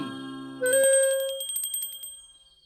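A small bell rings in a quick, bright jingle of repeated strikes that gradually fade out, preceded by a brief lower tone. Heard alone, with no talking.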